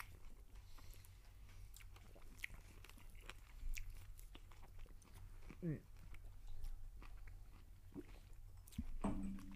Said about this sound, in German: So, also abbeißen, gut kauen und mit dem Cognac runterschlucken. Und ich sag mal, cheers. So. Das ist wirklich. Hm, das Kauen. Man hört richtig schön ein Kauen auf dem Mikro.